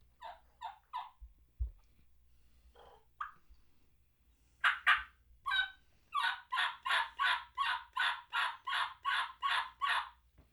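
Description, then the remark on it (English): A game call, used by Steve Stoltz of Drury Outdoors on a spring turkey hunt, imitates a turkey gobble: a few scattered short notes at first, then a loud, steady run of about a dozen evenly spaced yelping notes, with no talking. “That sound you're hearing is that of the Steve Stoltz from Drury Outdoors, Mossy Oak, Apex Ammunition, Woodhaven Game Calls.”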